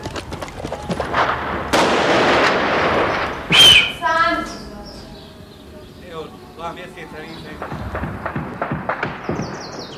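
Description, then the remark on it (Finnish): A Chetnik fires a burst of rifle shots that cracks out sharply at a group of unarmed people. Scattered further shots and raised voices follow beneath the noisy, chaotic scene. “Setnik suuntasi kiväärinsä meitä kohti ja ampui sarjan laukauksia.”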